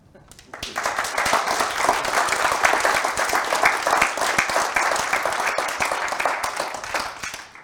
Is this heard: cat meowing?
no